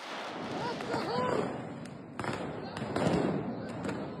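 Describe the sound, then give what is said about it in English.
Fireworks crack and pop in a handful of sharp, scattered bangs amid a loud, chaotic crowd, with a brief rising whistle early on and people shouting throughout; worshippers using fireworks against Israeli police raiding the Al Aqsa Mosque before dawn on a Wednesday. “As police officials raided the mosque, fireworks were used against them.”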